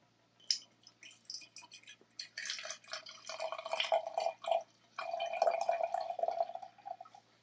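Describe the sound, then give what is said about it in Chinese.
Fresh milk (Lunbei brand) being poured into a measuring cup up to 150 cc for brown sugar milk tea: a short splash, then a steady burbling, gurgling stream with a brief break partway through, fairly soft and with no talking. “好，好，装好一百五十 CC 了，记得要把你的牛奶放进冰箱哦。”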